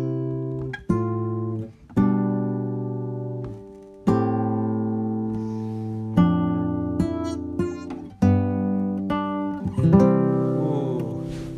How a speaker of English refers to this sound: buzzing all over the place because uh, I'm buzzing with my frets